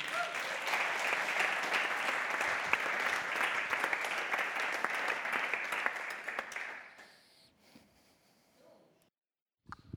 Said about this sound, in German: Großen Applaus für dich.